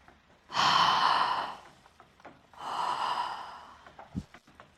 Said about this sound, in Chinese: 打个哈欠，让晕乎乎的大脑休息休息。